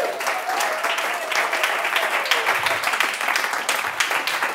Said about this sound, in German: Ja, ja ein bisschen Applaus wäre schon auch drin. Achso, jetzt der Applaus.